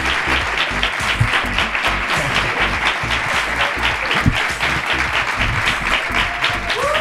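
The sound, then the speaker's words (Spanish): Sustained audience applause in Barcelona, a dense wash of many hands clapping steadily at a fairly loud level throughout, with faint voices or cheers poking through now and then. “Que sí que han aplaudido.”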